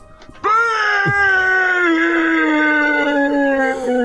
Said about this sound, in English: …, please stop screaming in my face and stop narrating and then screaming at me.